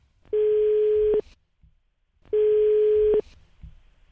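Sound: telephone call ringing tone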